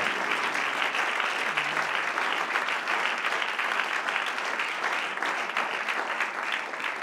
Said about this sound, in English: Give the Lord a lively hand clap of praise right now.